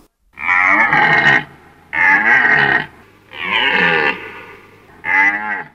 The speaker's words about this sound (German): So, haben Sie es erkannt? Ja, das klang für mich sehr nach einem brünftigen Hirsch. Ja, wunderbar. Sie sind ja Biologin, kein Wunder. Sie haben es sofort erkannt, weil ich finde, es klingt ja fast wie ein Löwe, ein bisschen.